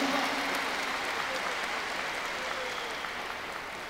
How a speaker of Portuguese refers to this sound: Parabéns a cada um de vocês, uma forte salva de palmas para vocês que estão aqui hoje buscando esse profissionalismo.